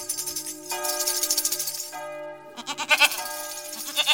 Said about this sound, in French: Et une chèvre Je crois rêver.